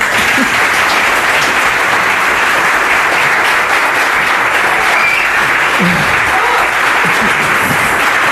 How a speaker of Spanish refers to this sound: un público muy leal, muy partidario, un público perfectamente amañado mediante un casting que hemos hecho con muchísimo escrúpulo y la demostración de que el público está amañado es esta ovación con la que os van a recibir a vosotros los tertulianos.